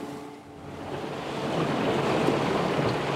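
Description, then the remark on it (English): A boat slows as it heads into Taku Inlet, a sheltered cove in southeast Alaska where the river reaches the sea; a low engine drone fades as steady splashing and hissing wash from the hull grows slightly louder; no one speaks. “The boat slows down as we head into Taku Inlet, a sheltered cove where the river reaches the sea.”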